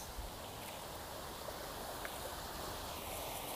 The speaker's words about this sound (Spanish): Se oye, se puede escuchar fácilmente lo que es el agua del arroyo